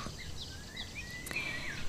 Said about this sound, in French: Aujourd'hui, je vous enregistre ce podcast dehors dans l'herbe, sous la fraîcheur des arbres parce qu'il fait presque 30 degrés donc vous allez sûrement entendre plein de petits bruits en plus de ma voix et surtout des oiseaux.